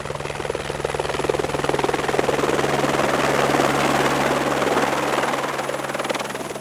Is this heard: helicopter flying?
yes